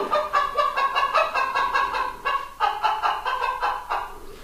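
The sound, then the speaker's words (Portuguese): Hens cluck lazily and continuously on a summer afternoon, a steady run of soft, repeated clucks with a drowsy rhythm and no other sounds around them. “Um cacarejar sonolento de galinhas numa tarde de verão?”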